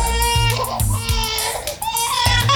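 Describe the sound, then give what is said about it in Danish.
A baby cries loudly, high wailing bursts that rise and fall almost without pause for the whole stretch, with no talking over it. “Ikke mindst, fordi mit eget barn vågnede tre gange af det der skide babygråd.”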